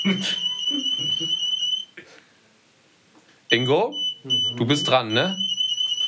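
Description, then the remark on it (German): A shrill, steady electronic anti-theft alarm tone sounds from a light that says "Do not steal the light". It dips briefly before returning, while people talk over it. “Do not steal the light, sagt das Light. Und was ihr hört, ist das Light.”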